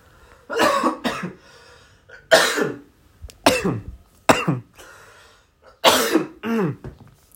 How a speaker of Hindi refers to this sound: am sorry इसको मैं unfiltered ही रखूँगा खांसी वासी है ये भी चलने दूंगा